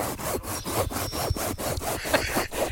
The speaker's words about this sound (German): jetzt schnitzen Sie doch bitte mal leiser.